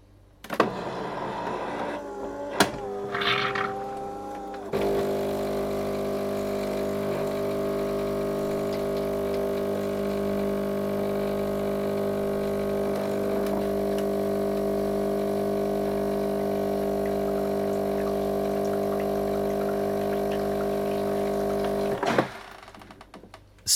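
A few clicks and a short whir as the right knob is pressed, then a machine's rinse cycle runs with a steady mechanical hum and pumping drone of water for nearly twenty seconds before stopping abruptly; no one speaks.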